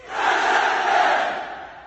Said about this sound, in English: And the host or moderator of the event basically shouts out for our fallen comrades or something like that. Everyone shouts present and gives the salute.